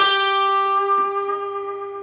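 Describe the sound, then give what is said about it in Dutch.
A single sustained electric guitar note rings out for about two seconds with a rapid, fine wavering vibrato made by quickly moving the pitch slightly up and down, bright and harmonically rich, slowly fading. No one speaks. “Maar als je dat snel doet, dan wordt het een beetje een soort friberend toontje.”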